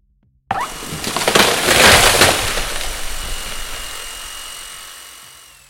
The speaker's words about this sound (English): Their thin arms feature sharp, spinning saw blades. They're chopping down trees as if they're breaking toys with the help of the whirring blades.